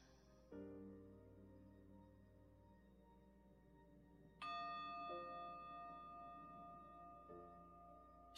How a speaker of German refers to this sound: Verweile. Auch wenn die Glocke läutet, bleibe bei deinem inneren Kind.